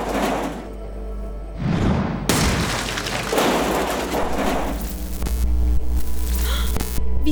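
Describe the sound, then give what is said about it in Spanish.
Electronic equipment in boxes powers up with a low, steady mains-like hum and throbbing drone, overlaid by swelling bursts of static-like noise and a few sharp clicks, fairly loud. “El equipo electrónico en esas cajas se están encendiendo.”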